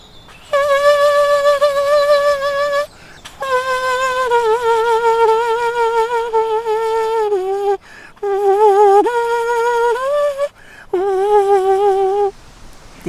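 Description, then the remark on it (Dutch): A buzzy, kazoo-like tune played by one person on a cupped hand, fairly loud, in several sustained phrases with wavering pitch and short pauses between them. No one talks. “als je dat dus net zo speelt en als een kazoo, dan kan je op je hand spelen”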